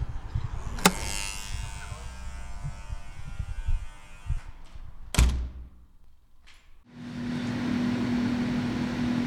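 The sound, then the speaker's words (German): Onboard computers in the cockpit of an Airbus A320 flight simulator in Bonn: a steady electronic hum with faint tonal whine, broken by a couple of sharp clicks and a brief lull before a louder, continuous machine drone with a low buzzing tone takes over. “Was hier zu hören ist, sind die Geräusche der Bordcomputer.”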